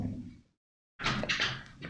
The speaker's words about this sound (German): Sie hat die Tür aufgemacht, Ups. geguckt, hat die Hände hochgehoben und hat die Tür wieder geschlossen.